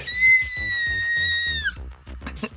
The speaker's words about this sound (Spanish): Mi grito de fangirl.